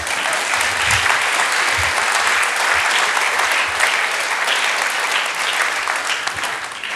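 An audience claps steadily for about seven seconds in applause for the man who baked the bread rolls, a dense, even wash of many hands at a constant loud level, with no voices speaking over it.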